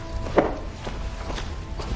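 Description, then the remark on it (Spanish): Four footsteps of a woman getting up and walking to a door, at an unhurried, even pace, about half a second apart, the first one the sharpest, over a low, steady background hum with no voices. “Lisbeth se levanta y va a la puerta.”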